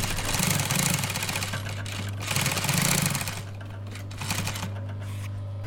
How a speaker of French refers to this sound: Je fais mes essais de couture, je règle la, machine pour pouvoir, euh, pour pouvoir coudre la capote derrière, là, sur la voiture.